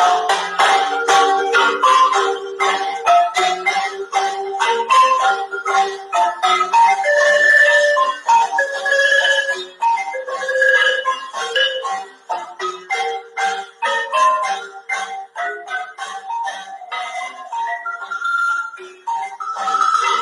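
Bright marimba music with quick, percussive wooden notes ringing in a lively melody, joined by breathy cane flute tones, playing steadily and fairly loud with no voices.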